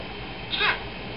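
A single short cat meow, brief and fairly clear, rising out of a steady low background hiss with no talking.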